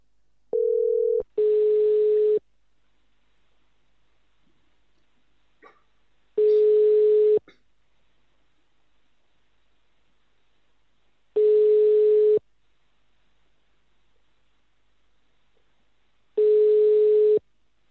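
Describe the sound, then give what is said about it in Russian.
A telephone ringback tone purrs four times while a contest winner is called live on air, each steady hum lasting about a second with long silent gaps between, and nobody picks up. A short beep comes first; no one speaks. “Так, набираем номер.”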